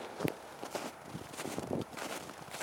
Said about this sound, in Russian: Снег был, но он весь заледеневший. Был такой полудождь, который потом схватился морозом, а весь снег просто заледенел. А сейчас прям мягкий снежок похрустывает. Ну-ка.